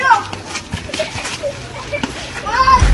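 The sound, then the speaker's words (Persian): A lively crowd of children playing and shouting, with bright high-pitched voices and calls overlapping in a busy ambience, rising louder near the end. “فوتبال، جاده بچه ها”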